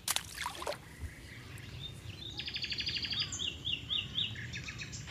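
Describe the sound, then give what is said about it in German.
Several birds sing and call at once in a Rhine floodplain forest of pollard willows, white poplars, elms and oaks, with rapid repeated trills and bright chirps, over a low steady background rumble like faint water movement. “Und dann diese Bäume überall, große Kopfweiden, Silberpappeln, Ulmen, Eichen und überall hört man Vögel.”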